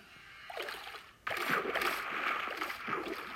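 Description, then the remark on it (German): Lava dripping steadily at a lava farm in a video game, a bubbling splatter that swells in abruptly after a quieter opening and keeps fizzing fairly loud, with small plops scattered through it and no talking. “Auf jeden Fall tropft dort die ganze Zeit Lava runter.”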